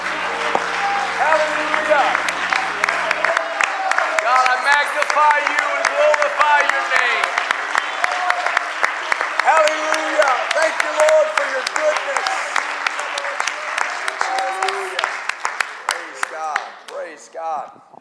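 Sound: audience clapping and applauding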